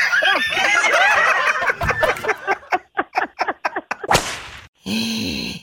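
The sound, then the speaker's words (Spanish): Squeaky, chattering vocal sounds give way to a quick run of sharp whip cracks, ending in one louder snap followed by a brief buzzing tone. “¡Sas! Culebra al piso y tras, tras, tras, tras.”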